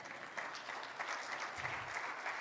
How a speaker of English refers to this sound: Somebody say amen and clap this morning.